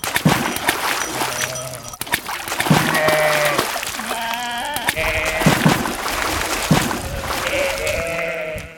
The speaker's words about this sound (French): Comme les moutons ont tendance à suivre les autres sans réfléchir, tous les moutons du troupeau se sont jetés à l'eau.